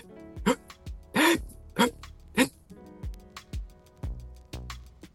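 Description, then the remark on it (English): A string of sharp, gasping breath intakes taken during rap verses, with the words removed, lands in a loose rhythm over a thumping beat: four strong breaths early on, then quieter ones trailing off. “I'd look into like I'd drill down into the the science of breath intakes during verses so I take the words away and just have these like.”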